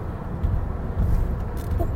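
Steady low engine and road rumble fills the space, a muffled continuous drone like riding inside a moving car, with no voices present.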